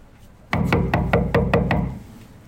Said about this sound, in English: Okay, looks like a housing complex. Nobody answers the door. We give it a few more knocks and wait. I'll give it another knock.